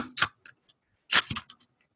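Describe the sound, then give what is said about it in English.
A metal slinky toy shifts and clatters in two quick bursts of dry, rattling clicks, bright and crisp, with a few faint ticks trailing after each burst. No one speaks. “it's a slinky.”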